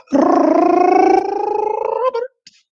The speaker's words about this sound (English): I just rolled the R so damn hard, I think I chipped my tooth.